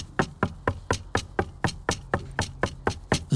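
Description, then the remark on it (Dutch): Someone knocks on the front door of a house on a modest estate, reached through a garden gate, in a steady, rapid series of about fourteen sharp, evenly spaced raps, each a crisp, hollow thud of even loudness, with no voices. “En we gaan aankloppen aan zijn deur en eens kijken of hij klaar is voor Tivoli Road.”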